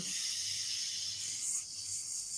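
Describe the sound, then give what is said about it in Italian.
A steady, sustained hissing exhale pushed through a half-closed mouth that leaves a small gap to make the hiss, fairly even in loudness, lasting the whole moment with no talking. “Adesso invece la bocca è chiusa, anzi semichiusa, perché comunque lasciamo un piccolo spazio per fare il suono, il sibilo.”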